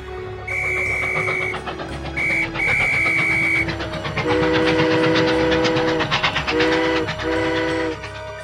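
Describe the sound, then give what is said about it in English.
A steam train rumbles and clatters along the rails, loud and steady, while its whistle blows several times, first in shrill short blasts, then in deeper, longer hoots. “Okay, I will slow down, jump off the train, and hide.”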